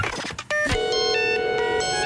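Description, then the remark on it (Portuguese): A radio station's telephone rings with a bright electronic tone, a steady harmonic chime that switches pitch in short steps and holds for over a second after a brief burst of noisy clatter. “Mas ao telefone até há pessoas a ligar para a rádio, a, a minha linha está a ferver.”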